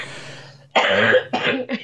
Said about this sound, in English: You're making me cough.